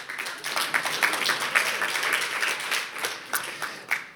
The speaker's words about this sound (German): Okay, wunderbar. Applaus für den Stift!